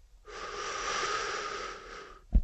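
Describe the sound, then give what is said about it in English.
A person draws in one long, steady, hissing inhale for about two seconds, imitating an engine sucking in air and fuel, ending with a soft low thump. Clear, with no talking. “What we're doing is is the engine is like your body when you breathe. The engine is sucking air and fuel.”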